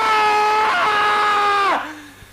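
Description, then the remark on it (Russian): A loud, piercing jump-scare scream holds a harsh, steady pitch for over a second, then abruptly drops and trails off into a short, fading tail, with no other voices around it. “Тут даже не из-за скримера, а потому что ты привыкаешь к темпу беседы.”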